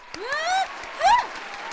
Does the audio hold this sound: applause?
yes